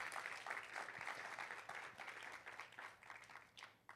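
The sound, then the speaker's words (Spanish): An audience breaks into sustained applause, a dense wash of many hands clapping at steady volume for several seconds before thinning slightly toward the end. No one speaks over it. “If you desire it, if you receive it, give the Lord a hand clap.”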